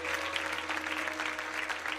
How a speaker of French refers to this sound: Est-ce qu'on peut applaudir toutes ces personnes qui se rapprochent de Jésus ce soir Amen, amen.